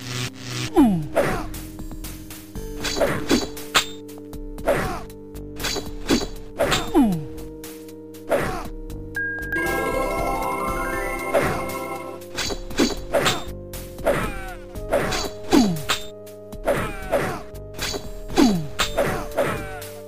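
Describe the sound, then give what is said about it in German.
Repeated sharp impact hits from a video game fight in which two characters attack with swords and one with a crossbow: sword strikes in quick succession with occasional lighter crossbow clicks and a lightning spell, over a steady droning background and a brief bright chime-like healing-spell melody midway. “zwei mit Schwertern, eine mit der Armbrust, das klingt dann Schlag, Schlag, Klick, Schlag, Schlag, Klick.”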